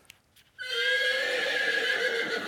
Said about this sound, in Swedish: Ja, just det. Någon slags häst.